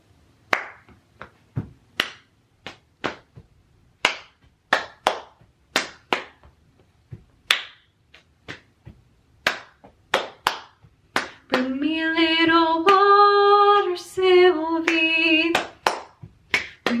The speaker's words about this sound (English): brush your legs, brush back, forward, stomp, clap, stomp, clap, clap, stomp, clap. Okay, so I'm gonna do that a few times. I'm on carpet, so you might not be able to hear at my feet, but it should make a nice little beat as we go. So it goes